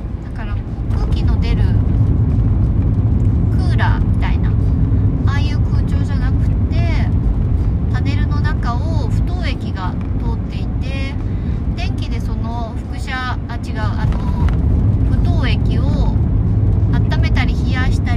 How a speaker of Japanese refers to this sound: 今日はおとなしくあの車の中空調がついてます言うほど快適でもないけど、まあ、涼しいといえば涼しいかな